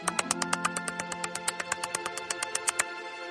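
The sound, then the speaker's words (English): A person imitates a kangaroo's clicking with a rapid, steady run of about twenty sharp, clear mouth clicks over a faint low hum, with no talking. “They make clicking noises, like this.”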